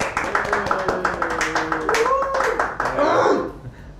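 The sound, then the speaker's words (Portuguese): An audience claps steadily and rapidly for about four seconds, a dense patter of hand claps, while several voices call out and cheer over the applause. “bate palma aí, gente. Bate palma aí.”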